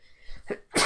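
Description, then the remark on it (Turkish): A single loud sneeze: a brief building inhale followed by a sharp, explosive burst of breath with a hissy noise tail, heard on its own without talking. “Özür dilerim sanırım, hapşıracağım evet, sanıyorum.”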